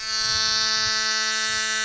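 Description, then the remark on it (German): A steady, loud buzzing horn drone like a vuvuzela, played from a fan-sounds app, holding one flat pitch with a rich, harsh overtone-laden timbre for about two seconds, no voices. “Hört sich ein bisschen an wie die Vuvuzela.”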